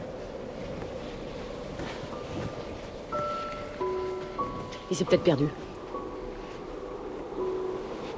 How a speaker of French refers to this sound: On dirait que le vent se calme un peu. Il y a toujours autant de tourbillons.